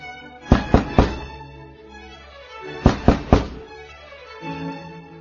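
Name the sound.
knocking on a door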